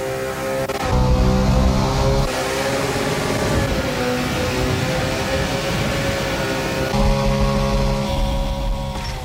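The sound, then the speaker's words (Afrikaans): A powerful car engine from Ken Block's Gymkhana stunt videos revs loudly and continuously for about nine seconds, a dense, roaring drone with steady harmonic tones whose pitch shifts slightly as the throttle rises and eases. No one speaks. “Hy het veral bekendheid verwerf met sy Gymkhana reeks waar hy met kragtige motors in stiere en lughawens toertjies doen en om hindernisse ry met skreeuende bande en trillende engines wat die klankbaan verskaf.”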